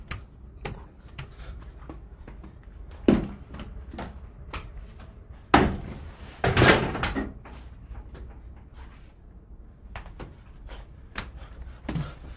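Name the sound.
door opening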